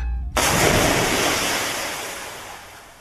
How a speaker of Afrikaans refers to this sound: Toe die stormwind begin en die nagreën kom, het sy haar in die put agter die huis gewerp en verdrink.